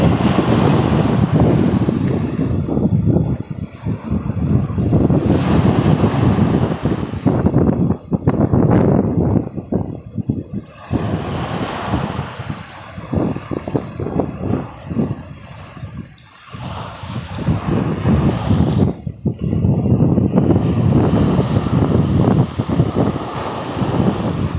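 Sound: sea waves and wind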